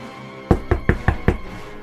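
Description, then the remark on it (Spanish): Five firm knocks on a door in a quick, even rhythm, clear, with no voices around them, made by a little lamb knocking from outside in the dark and cold. “La ovejita tocó la puerta.”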